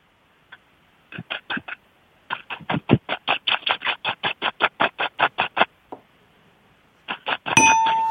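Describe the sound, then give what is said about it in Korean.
A voice on Park Myung-soo's Radio Show imitates a dog with a skin problem scratching itself, with rapid, rhythmic rasping bursts in several quick runs, fairly loud, followed by a short burst of harsher noise at the end. “강아지가 네. 좀 피부가 안 좋아서 긁는 소리.”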